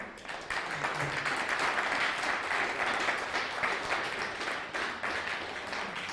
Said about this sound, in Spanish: Pues ya déle un fuerte aplauso a España.